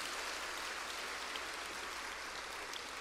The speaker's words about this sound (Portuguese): Aplauda ao Senhor pelo que Ele tem feito neste lugar.